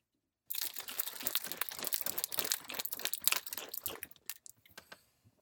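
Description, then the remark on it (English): A cocktail shaker holding alcoholic pumpkin juice is shaken hard, ice rattling in quick, steady bursts for about three and a half seconds before it abruptly stops. No one speaks. “I actually have it in my shaker right now, so uh, get ready for your ears.”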